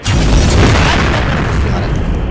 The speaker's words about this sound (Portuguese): O... som, o som do celular do homem. É o quê? O som do é, telefone.